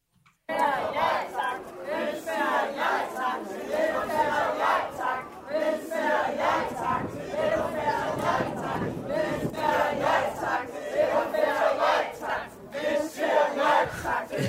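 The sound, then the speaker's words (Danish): A protest crowd at a demonstration voicing North Jutland discontent shouts and chants together, many voices merging into a loud, steady roar with rhythmic surges that continue without pause throughout. “Ja, men det er fordi, øh, det her det var, det var simpelthen øh, det var en meget fascinerende demonstration, fordi det var øh, som forenede øh, nordjysk utilfredshed med alt mellem himlen”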